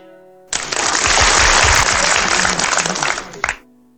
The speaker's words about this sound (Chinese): 此处应该有掌声了